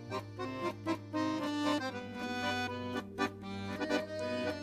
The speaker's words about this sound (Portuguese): É o circo. É o circo! Ele tá chegando na cidade.